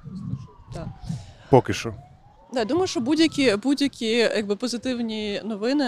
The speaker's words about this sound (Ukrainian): О, щось. Можливо, і це просто швидка.